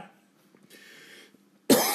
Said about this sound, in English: Excuse me, I still got a little cough.